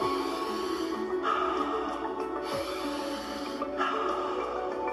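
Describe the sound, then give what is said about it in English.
Slow, deep breaths repeat steadily in an alkaline breathing exercise: airy inhalations through the nose followed by longer exhalations out the mouth, fairly loud over a soft, sustained musical backdrop. “In through the nose, out through the mouth.”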